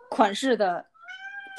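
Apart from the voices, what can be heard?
cat meowing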